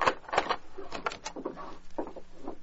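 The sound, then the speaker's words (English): The rear door of an office is unlocked and opened: a quick run of sharp metallic clicks and rattles from the latch, followed by softer scraping as it swings, with no voices. “open the door. It's about Joe Roscoe. Let me in.”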